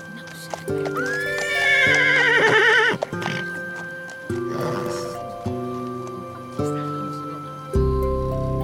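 A horse lets out a loud, quavering whinny near the start as its rider mounts it and sets off into the night with companions, followed by a steady clip-clop of hooves, with sustained tones humming faintly in the background.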